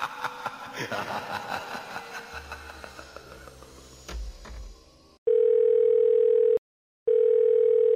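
A steady, loud telephone ringback tone sounds in two long beeps separated by a short pause as a phone call is being placed, following a stretch of busy background chatter and laughter.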